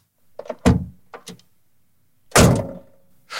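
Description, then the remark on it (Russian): The door of an old, cheap domestic car, a Zhiguli, slams shut with a loud, hollow thunk and a rattle inside, preceded by the clunk of the handle and latch, then is slammed again more heavily. “там аж внутри что-то дребезжит. Ну, это точно те, что типа классики. Ну, что-то отечественное.”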